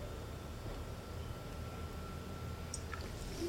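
A quiet sip of still-hot coffee without sugar, the first sip of the day in the morning, a brief soft slurp near the end against a low steady background hiss, with no one talking.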